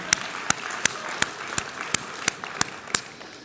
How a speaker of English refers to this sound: Can we just have a round of applause for parents? Yeah.